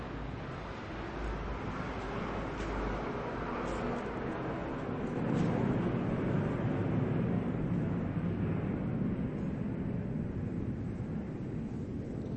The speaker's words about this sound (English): pause, pause. There's airplane.